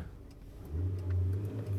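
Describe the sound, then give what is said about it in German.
A car engine catches on a morning start and idles roughly with a low, uneven rumble, accompanied by faint irregular ticking. It sounds quiet, with no voices. “Ähm, ach, das Auto, das huckelt morgens immer ein bisschen.”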